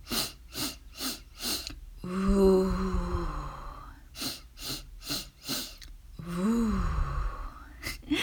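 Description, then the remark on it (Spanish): A meditation breathing exercise: four quick, sharp inhalations drawing air into the diaphragm, followed by a long, low voiced 'voo' exhale, with the whole sequence repeated twice. The breathing is clear, with no talking. “consiste en tomar cuatro inhalaciones llevando el aire al diafragma y luego exhalar el aire diciendo la sílaba VU, B corta U.”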